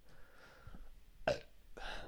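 Two short, fairly loud burps close together, the second slightly longer and breathier, with no talking and only faint background noise.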